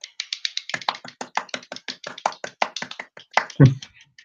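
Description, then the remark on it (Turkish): A quick, fairly even run of about twenty sharp taps, a homemade applause sound effect, steady and moderately loud, ending in one heavier, deeper thump. No one speaks. “Telif olmasın diye kendi efektimizi de kendimiz yaptık.”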